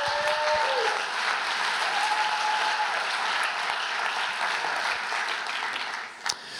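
Steady applause from a crowd, a dense, even patter of many hands clapping at a constant loudness for several seconds, with a brief whistle-like tone early on and no speech.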